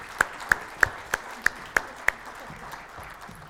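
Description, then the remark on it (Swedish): Applause made of about seven crisp, evenly spaced hand claps over two seconds, then the clapping stops and only a faint murmur remains. No one speaks. “Ska vi ge dem en till applåd?”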